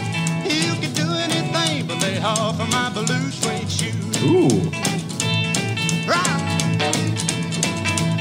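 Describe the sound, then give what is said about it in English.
An upbeat rockabilly song plays loud and full, a slapped upright bass clicking out a steady driving rhythm beneath twangy guitar and a singing voice, with someone briefly exclaiming over it. “That's the slap and bass, huh?”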